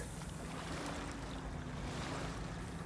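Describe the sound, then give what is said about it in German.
A boat on the Ganges River at Munga, India, is moored in a small harbour near a large railway bridge; it rocks on the water with a steady low engine hum and sloshing waves, wind buffeting the microphone throughout; no talking. “Wir machen das Boot im kleinen Hafen fest, in der Nähe der großen Eisenbahnbrücke, die hier über den Ganges führt.”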